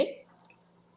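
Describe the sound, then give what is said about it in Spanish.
A single sharp mouse click right at the start, advancing to the next slide of a presentation during a live stream, distinct, fading quickly into a quiet background hum with a few faint, brief high-pitched blips. “Ya le di clic aquí, veces así se pasa, porque aquí en la transmisión como está un poquito lento, tarda un poquito.”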